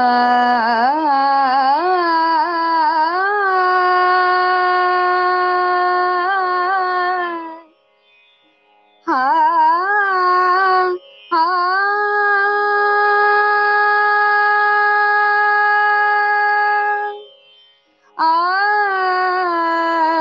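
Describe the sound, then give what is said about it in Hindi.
A woman sings a short khyal in raga Malkauns, drawing out long sustained notes with slow, gliding ornaments, in phrases separated by brief pauses for breath. “मैं आप सभी को राग मालकोन्स में एक छोटा ख्याल सुनाऊंगी”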